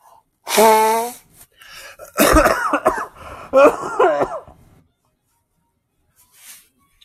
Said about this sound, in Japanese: 俺まず鼻噛まないと。鼻噛まして。ごめんね。